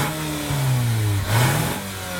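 A car engine revs up twice, its low droning pitch climbing and falling, with a brief dip between the two rises. No one speaks.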